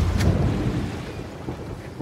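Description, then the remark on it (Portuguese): A thunderstorm rages with a deep, rumbling roll of thunder over steady rain hiss, loud at first and slowly easing, with a sharp crackle near the start and no voices. “Os dois navios entraram direto na tempestade com seus homens espalhados uns no navio dos outros.”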